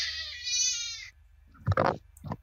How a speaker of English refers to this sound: Oh, that was a baby.